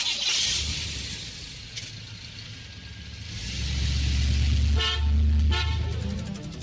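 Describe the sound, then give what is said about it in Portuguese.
A car drives past with steady low engine rumble, and a horn blares in a few short, loud honks near the end, with no voices. “Ouvinte da Mirante, passeando no seu carro.”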